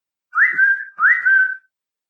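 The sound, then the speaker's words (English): A person whistles two short matching phrases at the entrance of a room, each sliding up and then holding a clear note, fairly loud with no talking around it. “So I'd be sitting at my desk in my room doing my homework, and he'd come to the entrance of my room and he'd start whistling.”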